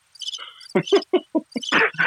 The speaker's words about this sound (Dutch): Ik ga als deze krekels zijn gestopt.